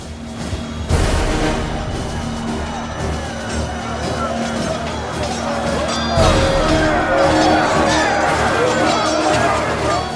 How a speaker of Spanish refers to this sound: Estamos ahora en el 16 de marzo de 1244. El poderoso ejército que estamos escuchando rodea una fortaleza encaramada en lo más alto de una montaña. Será aquí, en Montsegur, donde los cátaros pasarán a ser historia.